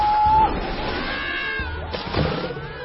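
A cat meows in a drawn-out, wavering cry with a nasal, mid-pitched tone, rising and falling over a few seconds against a faint, busy background.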